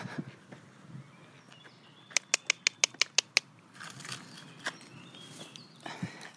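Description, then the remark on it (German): Ducks scurry toward food laid out in two small piles: soft pattering and scuffling throughout, with a quick, evenly spaced burst of about eight sharp taps in the middle. No one speaks. “So, jetzt sind vor allen Dingen die Enten hier wach geworden.”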